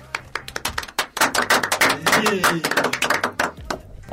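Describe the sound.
A burst of quick, sharp handclaps from a small group, uneven and overlapping, rising into steady applause for a few seconds with a voice faintly under it.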